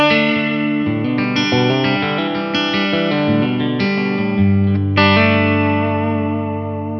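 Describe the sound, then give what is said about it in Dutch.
An electric guitar on its bridge pickup plays a run of overdriven chords, each ringing out fully into the next, with a warm, steady tone that never turns shrill. No one speaks. “hetzelfde met die, met die, met die brugpick-up. Plots schreeuwerig, het wordt niet plots overbright.”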